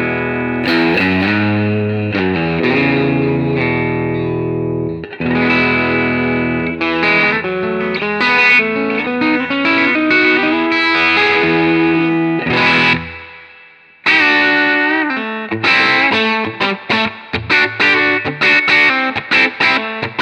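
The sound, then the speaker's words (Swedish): Distorted electric guitar on the bridge pickup plays bright, biting chords and quick lead runs, ringing with effects, pausing briefly near the middle before a choppy, staccato passage. “Jag skulle vilja först att du spelar lite mer på stallmicken”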